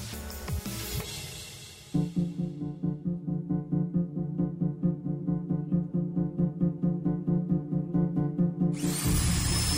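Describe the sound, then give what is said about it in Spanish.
A loud concrete drill on a construction site hammers away in a steady, rapid pulsing rhythm for several seconds, preceded by a brief rougher power-tool noise and ending with a harsh high-pitched whine. “El sonido del taladro de concreto perfora mi cabeza cual máquina de dentista amplificada el martilleo sobre el metal, con otros ruidos estridentes cuyo origen no identifico, cruzan la ventana de manera constante.”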